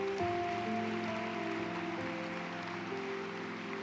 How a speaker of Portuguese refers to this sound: Pode aplaudir mais forte porque é verdade.